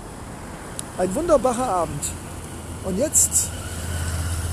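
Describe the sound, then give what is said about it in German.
A steady wash of street traffic noise fills the background while a man talks briefly, and a low engine drone from a passing vehicle builds toward the end. “ja, du hörst im Hintergrund all diese Geräusche des urbanen Lebens, aber hey, wir können nicht immer optimale Podcasts machen.”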